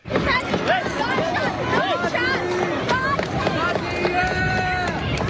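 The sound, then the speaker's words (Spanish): A panicked crowd at a Fourth of July parade in Highland Park, Illinois, as a shooting begins: first gunshots in the background, many voices shouting and screaming at once over running footsteps and constant commotion, loud throughout. Recorded by a child on a mobile phone. “Al fondo se escuchan perfectamente los primeros disparos el pánico de decenas de personas que en ese momento presenciaban el desfile.”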